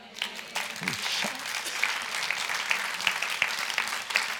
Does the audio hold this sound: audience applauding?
yes